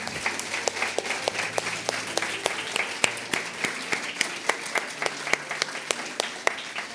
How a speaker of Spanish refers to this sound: Vamos a darle un aplauso al Señor por esas personas que han recibido a Jesús esta mañana.